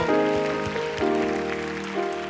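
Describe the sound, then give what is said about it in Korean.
An audience at a worship service applauds to give thanks and glory to God, a dense, steady wash of clapping that lasts the whole moment, layered over sustained keyboard or organ chords that shift pitch a few times underneath. “우리 하나님께 감사와 영광의 박수 한 번 더 올려드릴까요?”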